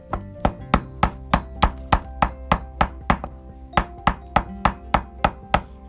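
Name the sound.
knocking on a door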